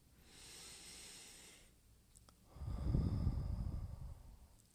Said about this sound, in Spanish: Cuando el tiempo es oro, realmente si lo aprovechamos desde que abrimos los ojos, tener una conciencia de nuestra respiración.